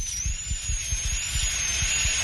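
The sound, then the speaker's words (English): A dental drill drills out an old filling in a lower right tooth, whining at a high, steady pitch that wavers slightly, continuous, with a soft low rhythmic thumping underneath and no talking. “I'm drilling out the old filling now.”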